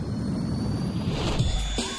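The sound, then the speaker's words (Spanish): A continuous, loud roar of a craft's engines at takeoff, dominated by deep rumbling with a hissing wash on top, swelling slightly toward the end. No voices. “Motores. Con niveles de energía óptimos. Iniciamos despegue.”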